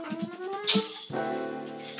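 A dog named Rio barks, asking for a door to be opened. The bark has a tonal, whining edge: a few short, pitched yelps followed by one longer, sustained cry that holds steady for about a second. It is fairly loud, with no talking.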